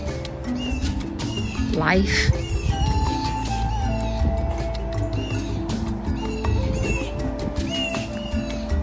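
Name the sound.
birds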